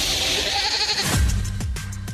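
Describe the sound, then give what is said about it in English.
A person imitates a horse whinny, a loud, quavering, bleat-like cry that wavers for about a second and then breaks into a few sliding, descending yelps. “By the way, you got to get your horse voice back.”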